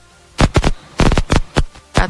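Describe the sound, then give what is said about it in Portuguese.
A phone line cutting in and out: six or so short, loud bursts of harsh static crackle, separated by brief near-silent gaps, giving a choppy, broken-up sound. “bem ruim que, o contato aí.”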